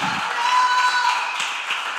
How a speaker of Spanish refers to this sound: Hay aquí alguien que lo cree, que aplaude fuerte, vamos.